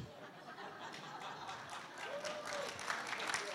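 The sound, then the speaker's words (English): A church audience claps together in a dense, steady wash of applause that holds an even loudness throughout, with faint voices murmuring underneath. “Now, when I said that two years ago, the whole church clapped.”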